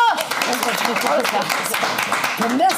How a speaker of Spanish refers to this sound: Y mi eh, aplauso, por favor. ¡Vamos!